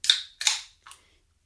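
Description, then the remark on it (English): A beer can cracks open: two sharp, bright pops each trailing into a short fizzy hiss, then a quieter third snap, with no voices. “So let's crack a can”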